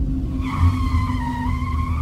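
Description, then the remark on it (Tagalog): Car tires screech in a sustained, wavering squeal as the driver brakes suddenly and hard on a dark road through tall trees, loud over a low engine rumble, lasting the whole moment without any talk. “Bigla akong napapreno nang marinig ang sigaw”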